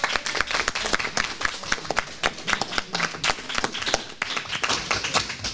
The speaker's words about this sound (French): Ils vous saluent. Nous les saluons également. On va les applaudir peut-être à Hambourg.